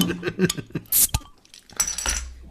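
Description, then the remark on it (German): A bottle of Keller 1842 Kellerbier is opened with a sharp pop and brief hiss, surrounded by light glassy clinks and handling taps, then a longer fizzing rush near the end. “Okay, dann machen wir das mal auf.”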